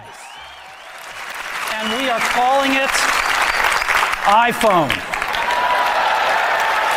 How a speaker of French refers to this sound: Dans la salle, ce ne sont pas seulement des applaudissements qui font suite à cette annonce, mais carrément des cris.